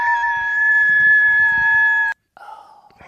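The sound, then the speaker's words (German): A moose call: a long, loud, steady tonal bellow with strong harmonics that holds for about two seconds and cuts off abruptly, followed by a shorter, fainter, lower-pitched wavering call. “Es ist ein Elch.”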